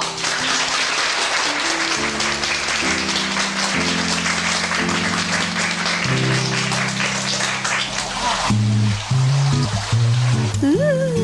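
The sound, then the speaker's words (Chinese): Classmates at a nurses' capping ceremony clap steadily for about eight seconds, a dense, even crackle of many hands, with soft background music underneath that carries on after the applause thins out. “来，同学拍拍手。”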